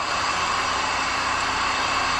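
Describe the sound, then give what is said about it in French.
A tractor engine, the tractor Kevin Owens is about to use and climb onto, runs at a steady, loud drone, its dense rumbling hum holding constant with no pauses and no voices over it. “Et il cherche euh, à utiliser le, le tracteur, justement.”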